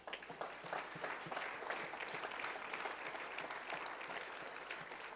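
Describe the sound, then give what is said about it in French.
An audience breaks into sustained applause, many hands clapping in a dense, steady patter that holds at an even, moderate loudness throughout, with no speech over it. “Donnez-lui une main d'acclamation.”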